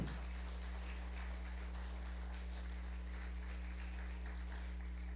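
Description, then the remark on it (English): A crowd at Promise of Victory applauds steadily for about five seconds for teachers and teacher's aides, the clapping soft over a constant low electrical hum, with no one speaking. “Let's give them a round of applause.”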